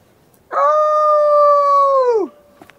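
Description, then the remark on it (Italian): A single drawn-out wolf howl, loud, rising quickly, holding a steady tone for nearly two seconds, then sliding downward and fading out, with no talking around it. “È il lupo.”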